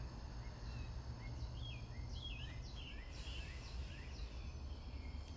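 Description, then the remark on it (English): Several birds chirp and trill in quick overlapping bursts, faint, over a steady low outdoor rumble, with no one speaking. “Here, over here, you hear the birds and they are alive and welcoming us to a new day.”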